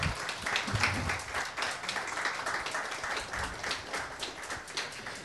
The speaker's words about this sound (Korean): 박수 부탁드립니다.